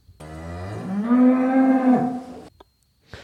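A single long moo from a dairy cow, rising from a low groan into a loud, harmonic bellow and ending abruptly after about two seconds, followed by a brief soft rustle.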